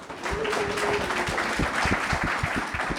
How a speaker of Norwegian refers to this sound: Da takker vi for uh, følget, og takk til et fantastisk publikum som har tatt turen ut i snøstormen. Gi dere selv en applaus.